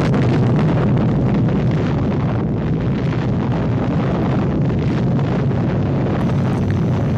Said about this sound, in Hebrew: דקה אחת אחרי 11 בצהריים, שוחררה הפצצה עם ליבת חמשת הקילוגרמים פלוטוניום שלה. היא התפוצצה אחרי 47 שניות.